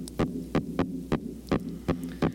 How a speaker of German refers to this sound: Ja, das ist so ein rhythmisches Knarren und stammt vom Langstachelhusar. Ein knallroter Fisch aus der Karibik.